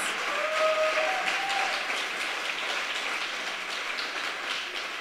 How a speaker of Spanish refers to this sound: Si ese aplauso es para Jesús, dalo con ganas.